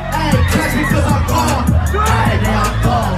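A packed crowd cheers and shouts loudly over booming bass-heavy music, the dense roar of voices continuous throughout, at the Fortune Sound Club nightclub in Vancouver on a Friday night as a rapper makes a surprise appearance and performs two songs.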